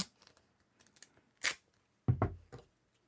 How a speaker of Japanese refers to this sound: おもむろにテープをちぎってテグスにくっつけたりしています